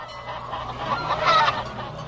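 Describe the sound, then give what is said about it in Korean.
Live chickens cluck and squawk in a dense, continuous chorus of overlapping calls, moderately loud, swelling briefly midway through before settling back, on a roadside in Nepal where live chickens and goats are sold along the road to the Vindhyabasini temple. “사원으로 향하는 길가에는 살아있는 닭과 염소를 팝니다.”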